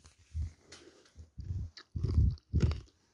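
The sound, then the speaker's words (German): Crunchy chewing of muesli, heard as about five rhythmic mouthfuls with short pauses between them, fairly loud, with no talking. “sollst nicht kauen”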